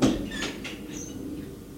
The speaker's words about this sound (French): Il frappe à une porte. Entrez. Entrez. Elle entre et referme la porte.